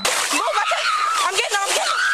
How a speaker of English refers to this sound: wades into the murky water along with a bystander.